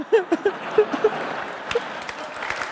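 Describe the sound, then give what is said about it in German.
A short patter of applause, a dense wash of clapping with a few sharper claps, while short voiced bursts, like laughs or cheers, pop out during the first second. “Bei sowas klatscht.”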